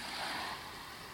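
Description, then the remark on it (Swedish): Sea waves wash against the shore in a soft, steady roar that swells briefly and then eases off, heard alone at a gentle level. “Stå stilla och hör vågornas brus.”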